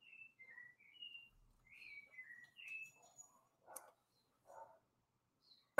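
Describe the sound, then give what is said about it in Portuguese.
A sabiá thrush sings a series of clear, whistled phrases, rising and falling in short melodic bursts, in the Perdizes neighbourhood of São Paulo, Brazil. It sounds fairly faint, with no talking and a couple of soft background noises between phrases. “Nas suas lives, adoro o canto do Sabiá ao fundo.”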